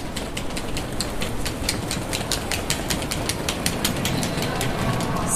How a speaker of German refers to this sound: So, und es ist jetzt am nächsten Morgen. Der Morgen danach, wir stehen am Gleis, ready to go, ready to go back home to Cologne.